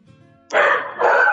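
Two loud barks from dogs in quick succession, each a sharp, harsh burst following a brief quiet moment with faint background noise.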